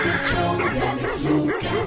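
A dog barks and yips in a quick series of close, loud barks with a few whimpering notes, set against a steady, busy background.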